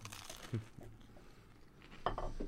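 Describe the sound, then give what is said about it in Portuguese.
Crisp crunching from someone biting into crunchy bruschetta while tasting it with a wine to check the pairing, with a couple of brittle bursts separated by a quiet pause of chewing, no talking over it. “vamos ver se ele harmoniza com a brusqueta aí dá, uma mordida na brusqueta hum.”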